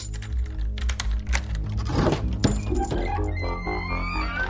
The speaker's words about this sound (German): Aus Sorge hat sich der Sohn auf den Weg in das Ladengeschäft gemacht, um seinen Vater zu suchen. Er besitzt einen Schlüssel und öffnet die Eingangstür.